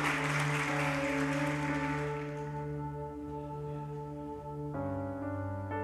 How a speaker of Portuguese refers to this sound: Vamos dar uma salva de palmas a Deus pela vida da nossa irmã? Aleluia.